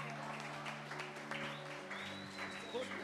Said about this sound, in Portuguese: Uma salva de palmas para o Ministério Outubro Rosa.